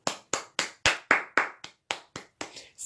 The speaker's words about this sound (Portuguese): É, uma salva de palmas para eles do estúdio